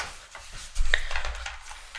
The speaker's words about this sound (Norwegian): Du er nødt til å slutte å klø deg på hånda